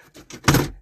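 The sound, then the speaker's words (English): A small solar panel that keeps the car battery charged is handled inside a car: a few quick clattering knocks build to a louder rattling scrape, then fade out, all within a second and with no voices. “what you just heard is actually my first solar panel it's sitting in my car right now that actually charges up my car keeps my car battery going um while i'm not using the car for a long amount of time”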